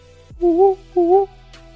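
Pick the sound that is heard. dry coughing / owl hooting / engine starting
owl hooting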